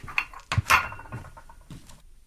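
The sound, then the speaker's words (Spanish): Two women wash the dishes in a kitchen after lunch, with several sharp clinks of plates and cutlery knocking together at irregular intervals over a low background of handling noise. “Adriana, la hija menor, y su esposa Gladys se encontraban lavando la vajilla”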